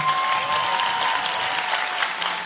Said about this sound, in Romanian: băiatul de aici, sus, sus, sus, aplauze pentru el.